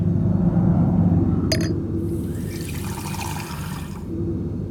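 A brief clink, then water poured into a glass in a steady stream for about two seconds, over a constant low background rumble.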